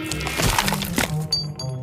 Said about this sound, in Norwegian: Og den kvelden, sammen med en politikollega, bestemte Tore Per Bakken seg for å kløyve trebiten for å se hva den her metallgreia egentlig var.